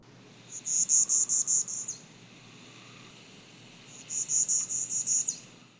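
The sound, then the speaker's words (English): A Bachman's warbler sings two short, buzzy trills of rapid, evenly repeated high notes, about seven pulses each, separated by a brief pause, clear against faint background hiss. “Here's Bachman's warbler.”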